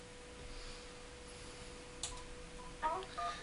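A telephone on the studio line rings with a few short electronic tonal chirps toward the end, faint against a steady low hum and quiet background. No one speaks.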